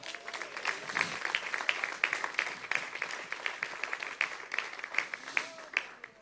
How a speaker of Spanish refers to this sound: ¿Cuánto le da un aplauso a Jehová?